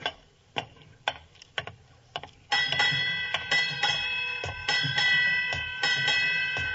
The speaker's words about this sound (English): Eight bells. Let's see, that would be... Uh... Midnight, Watson.